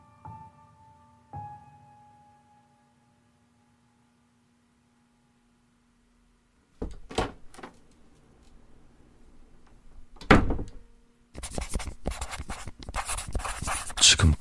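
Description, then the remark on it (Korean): A bathroom door is opened and shut, with sharp latch clicks and a heavier thud after a quiet stretch, followed by busy rustling and scraping noises. “난 정신 나간 사람처럼 문을 여닫으며 기록했다.”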